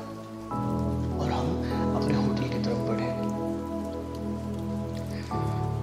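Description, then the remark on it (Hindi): Gentle rain patters steadily over green fields throughout, a soft continuous wash of drops blended with a sustained humming, music-like tone underneath, with no voices. “अपने चारों तरफ सिर्फ हरे खेत और धीमी धीमी बारिश को देखकर मन प्रसन्न हो गया”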